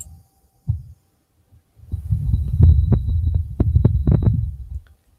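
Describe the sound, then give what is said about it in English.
Muffled, low wind on Mars, recorded by a rover's microphone, rumbles and buffets in uneven gusts, with a brief thump early on and then a longer stretch of deep, fluttering roar before it fades out. “it's windy on Mars.”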